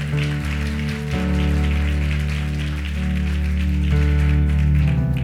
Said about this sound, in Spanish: Entonces hoy yo, dale un fuerte aplauso al Señor.